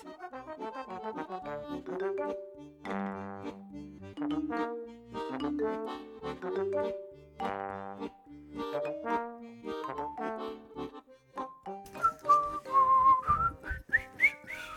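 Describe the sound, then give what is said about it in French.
A melodic tune carried by whistling, with steady rhythmic notes rising and falling and a brighter, wavering whistled line near the end. Fairly loud, with no talking. “Oh, on siffle de mieux en mieux, ça c'est la réforme des retraites qui nous motive.”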